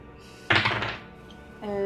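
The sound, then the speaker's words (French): A twenty-sided die is rolled across a table in a role-playing game to resolve an arrow shot, fairly loud, with a quick burst of rattling bounces that settles within half a second before a voice starts speaking. “Roule un des 20, s'il te plaît, pour Shaina.”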